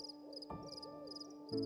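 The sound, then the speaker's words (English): An owl that roosts in the turrets of a castle hoots in a few soft, wavering calls, fairly quiet and set against a steady background hum, with no voices present. “It is nothing, said Lena, only the cry of the owl which roosts in the turrets of the castle.”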